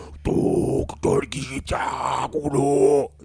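Harsh, guttural vocal screams in bursts over a loud, droning backing track, the growled phrases separated by brief gaps.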